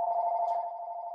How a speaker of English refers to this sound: excuse the phone.